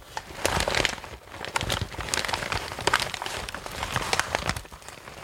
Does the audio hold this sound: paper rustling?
yes